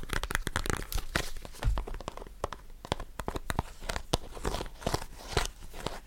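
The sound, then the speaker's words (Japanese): A small plastic toothpick case is handled and tapped, giving a fast, irregular run of sharp clicks and crinkly rattles, fairly quiet, with no talking. “この爪楊枝の音がね、とってもいいと思うんだけど この箱もいい音すんだよ。”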